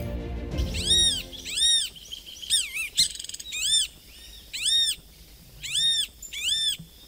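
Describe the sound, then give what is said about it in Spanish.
A southern lapwing gives a series of loud, shrill, ringing calls, about seven in a row at a quick, slightly uneven pace, with no one talking. “Sí, este, eso está chillando el tero”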